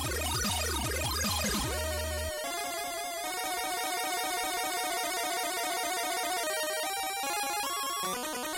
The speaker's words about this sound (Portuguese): Então uhum. eu vou desconstruir aqui o som para vocês acompanharem como é que funciona. Vou isolar só as ondas quadradas agora.